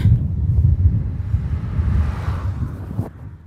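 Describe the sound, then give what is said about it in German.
Steady, loud low rumble of strong wind buffeting a microphone while cycling on a fairly flat road with a view of the Vosges ahead, a continuous roar with gusty surges and no speech, easing slightly toward the end. “Also wir fahren relativ flach mit Blick auf die Vogesen vor uns auf der Straße und es hat heute ziemlich einen Wind.”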